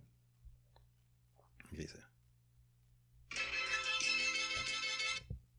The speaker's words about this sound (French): ma sonnerie c'est la, la, la, la, sonnerie de l'intro des Transformers. Tu sais, je vais vous le faire sonner.